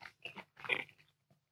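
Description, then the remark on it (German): Crunchy bites into a pizza followed by a few wet chewing sounds, several quick bursts in a row before fading into quiet, with no talking. “Ach, ich muss, Freunde, ich muss jetzt einfach mal ganz kurz hm, hm, in die Pizza abbeißen.”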